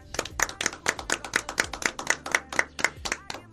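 Applause in a steady, rhythmic beat: about a dozen sharp, crisp claps in quick, even succession, fairly loud, with no talking over them.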